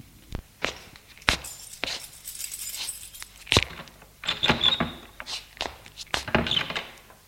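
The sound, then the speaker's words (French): Keys jangle and scrape, followed by a series of sharp metallic clicks and knocks as a lock turns and an apartment door is worked open by a woman returning late at night, with no voices. “Elle revient un peu éméchée. Elle ouvre la porte de l'appartement.”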